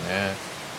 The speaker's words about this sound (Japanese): 土砂降り土砂降りですねなんかなんて表現したいんだろうバケツひっくり返す感じではないんですけど、うん、傘がないともう完全に濡れてる感じですねあと雨粒が大きいかな少し